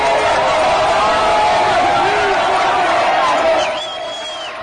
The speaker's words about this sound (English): Absolutely deafening cheers and applause. Deafening. This is military rolling into Rio de Janeiro. Look at that! Look at that welcome.